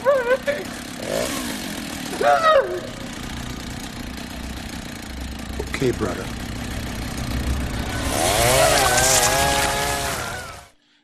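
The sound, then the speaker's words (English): A chainsaw in a film scene idles and sputters beneath voices for several seconds, then revs up loudly with a rising, rasping whine near the end before cutting off, as a man's head is cut off with it. “and that's where he cuts his head clean off with the chainsaw.”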